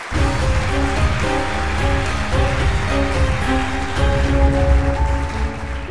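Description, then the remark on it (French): Loud, steady applause from a crowd fills the whole six seconds, a dense wash of clapping welcoming the guests Pépé et Mémé onto a French show, with a bright melodic music cue playing along underneath, no one speaking. “Allez, un tonnerre d'applaudissements pour Pépé et Mémé.”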